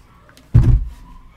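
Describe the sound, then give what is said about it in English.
A door is shut with one solid, low thud. The bang dies away within a fraction of a second, leaving quiet room tone. Nobody speaks. “Let me close my door real quick because the stupid dogs in the goddamn.”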